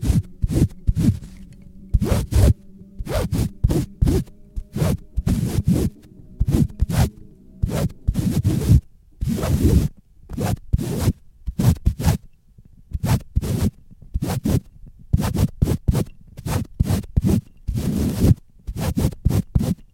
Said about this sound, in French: Mais Jomi Massage, lui, il écrit, tout simplement. Mais pas avec un crayon, avec un microphone. Writing with a microphone, ou comment faire le crayon qui frotte plus franchement dans nos tympans.